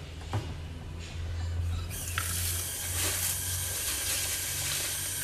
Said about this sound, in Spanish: Entonces aquí voy a medir una taza de arroz exacta para lavarla. Vamos a lavarlo. Aquí vamos a lavar nuestro arroz y sacarle el almidón.